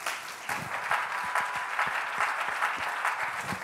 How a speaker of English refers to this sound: If you're ready to receive the word, come on, clap your hands unto the Lord one more time.